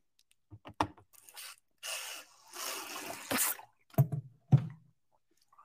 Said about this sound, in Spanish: Me voy a agarrar acá mi bidón de agua.